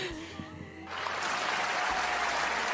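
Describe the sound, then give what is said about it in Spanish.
A brief voice gives way to a burst of steady, dense applause from a crowd, clapping loudly and continuously until the end. “Aplausos.”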